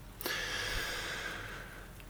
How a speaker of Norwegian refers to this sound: Én ting er jo så dro jeg inn pusten masse med, med munnen.